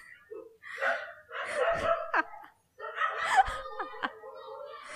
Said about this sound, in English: The dog's been crazy.